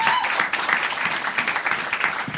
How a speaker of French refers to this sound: on applaudit l'RTBF, bien sûr. Bravo. Bravo